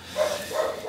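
A dog barks twice in the background, two moderately loud yaps about a third of a second apart, somewhat distant with faint room noise around them.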